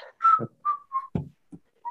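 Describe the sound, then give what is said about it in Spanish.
Someone whistles a short tune, the theme song of the TV show Ventaneando, a handful of clear notes separated by brief pauses, with a few low breathy puffs between phrases and no talking. “Es como flauta, yo pensé que eran chiflidos.”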